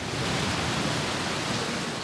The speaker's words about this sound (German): Beim Besuch seiner Gemeinde Anfang Juni regnet es in Strömen. Binnen Sekunden steht der Innenhof unter Wasser.